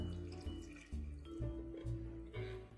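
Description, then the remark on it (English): Warm water, 180 grams, pours steadily into the bowl of a stand mixer with all-purpose flour, a continuous splashing trickle with shifting pitch as it fills, fairly quiet, with no voices. “In the bowl of my stand mixer, I'm combining 440 grams of my all purpose flour, 180 grams of warm water,”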